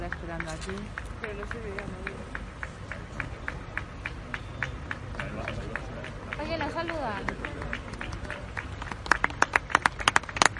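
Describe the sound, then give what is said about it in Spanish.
A crowd claps steadily for King Felipe VI on a cold Three Kings' Day, with scattered shouts and cheering voices mixed into a busy background murmur; sharper, louder claps come near the end. “día de reyes, día mucho frío, pero ha habido muchos aplausos al rey Felipe VI”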